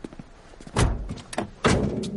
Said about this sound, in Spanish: Cierra las puertas mientras Walt se sube en el asiento del conductor.